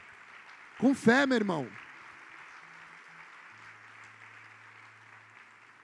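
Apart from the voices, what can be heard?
audience applauding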